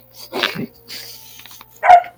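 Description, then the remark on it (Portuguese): A dog barks a couple of times, fairly loud, with a short yelp-like burst early and another sharp bark near the end, separated by a quieter rustling pause. The dog is Alau, Mordecai's dog at a tower. “o cachorro da minha torre late.”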